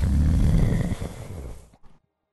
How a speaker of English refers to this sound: What you're very sure now is this rhythmic breathing.